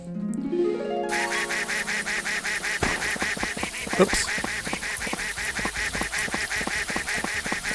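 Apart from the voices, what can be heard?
video game duck quacking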